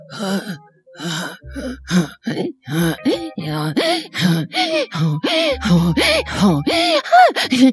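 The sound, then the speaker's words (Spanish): A voice imitates throat singing with a steady, rapid rhythm of alternating inhaled gasps and exhaled guttural grunts, fairly loud, with occasional low rumbling drones underneath and no speech; in the style imitated, inhaled sounds are melodic and exhaled sounds resemble animal sounds. “Y ya se empieza a hacer como cuando ella aspira, hace un sonido que hace todas melodías hermosas y cuando exhala hace sonidos que parecen como sonidos animales, ¿no?”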